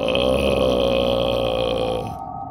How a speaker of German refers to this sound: Haben die gerade so laut gerülpst? nee, die sind sau besoffen oder so. Die können nicht mehr mehr reden.